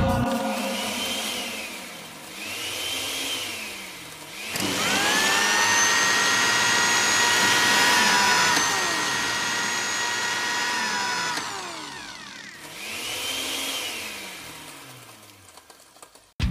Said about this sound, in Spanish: Y la participación especial de la licuadora loca.